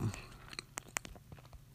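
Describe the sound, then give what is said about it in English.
Quiet chewing of a big bite of a small pizza, with a series of soft crunchy, wet clicks spaced irregularly and no talking. “Okay, I took a big bite. Hopefully you can't hear me chewing on mic.”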